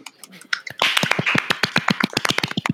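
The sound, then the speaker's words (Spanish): A burst of applause: quick, sharp claps that start sparse, then thicken into a steady, fairly loud patter for a couple of seconds, with no voices over it. “Un aplauso, por favor.”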